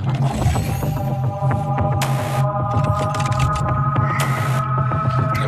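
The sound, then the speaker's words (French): Eerie horror-film music from the French film Horse Aid, screened at the theatre in Béziers during the first fantasy film weekend: a low, throbbing drone under sustained, uneasy tones, broken by two short bursts of hissing noise, steady and fairly loud with no voices. “Alors la musique est flippante”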